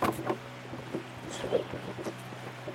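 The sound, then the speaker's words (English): Water laps and splashes gently and continuously, a soft irregular sloshing over a low steady rumble, with no voices; water at Deep Creek in the Smoky Mountains, recorded from a tripod while a tent is being packed up. “I want to set up the tripod so I can listen to the beautiful water”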